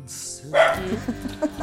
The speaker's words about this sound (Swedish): Alltså jag är så trött på han och hans jävla skällande.